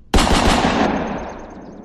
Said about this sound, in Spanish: Logró detonar algunos proyectiles que le impactaron en el pecho.